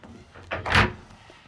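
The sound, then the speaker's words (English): A bin lid swings shut with a quick scrape followed by a single loud, hollow clunk, standing alone against a quiet background. “But I might close the lids because our human food actually isn't the best for cockatoos.”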